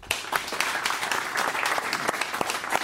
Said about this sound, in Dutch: Geef hem maar een eh, welverdiend applaus.